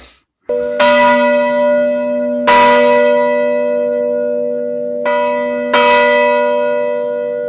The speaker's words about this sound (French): Eh ben, partie spoil avec euh, la petite cloche que j'oublierai pas cette fois-ci.